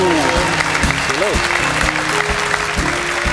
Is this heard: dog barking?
no